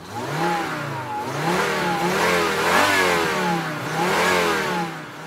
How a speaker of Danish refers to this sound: Så sætter han nøglen i og starter bilen, og så får han sat den i gear og kører langsomt fremad.